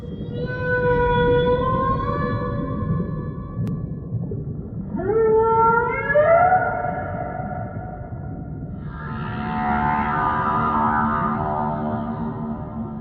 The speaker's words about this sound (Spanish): Roger Payne identificó esos sonidos como canciones. canciones que las ballenas entonan unas para las otras o bien las cantan juntas.